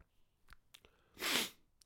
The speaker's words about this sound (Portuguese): Estou um, a ver quando vos dá aquela que mexeu no nariz, parece que vocês vão espirrar. Mas na verdade não espirram. Pronto, foi isso que me aconteceu.